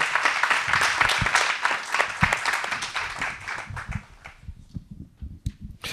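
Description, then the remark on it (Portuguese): An audience at the Tratar o Cancro por Tu stage event breaks into dense, sustained applause for storyteller and humorist Jorge Serafim, many hands clapping together in a loud crackling wash that gradually thins out into scattered claps near the end. “Peço um aplauso para o Jorge Serafim, ator e humorista.”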